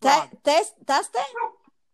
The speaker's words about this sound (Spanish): Hasta mi perra ladró. Oh, eso quiere decir que lo dijimos bien.